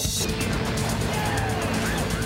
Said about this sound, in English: They wrecked your car.